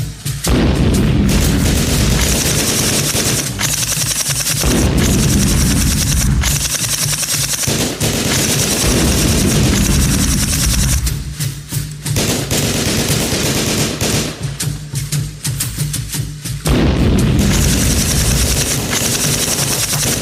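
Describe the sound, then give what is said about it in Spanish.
Sustained heavy gunfire with rapid automatic bursts, punctuated by deep, booming grenade explosions, during an ambush in darkness. Loud and dense throughout, with brief lulls between volleys and no voices. “Nunca supieron desde dónde les cayó la granizada de balas, ni las granadas,”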